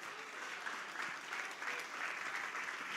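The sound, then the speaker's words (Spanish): A church audience gives a standing ovation honoring the word of God, a dense wash of many hands clapping at once that stays fairly even throughout, with no voices standing out above it. “Vamos a ponernos de pie, dar ese aplauso de pie, honrando la palabra en esta hora.”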